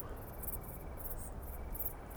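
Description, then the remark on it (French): Wingless bush crickets (decticelles) stridulate at nightfall in late August 2018 on a plateau at 1,200 m altitude in the Drôme, France, heard from under a Scots pine, in repeated high, buzzing bursts, several overlapping, over a steady rumble of strong wind sweeping the plateau. “je me suis installé sous un pin sylvestre et j'écoute chanter les decticelles.”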